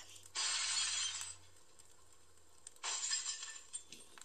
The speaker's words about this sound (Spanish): Entonces, los vidrios de su casa empezaron a tronar.